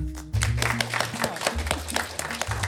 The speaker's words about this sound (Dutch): Ontzettend bedankt voor het luisteren en mag ik een groot applaus voor Sobra.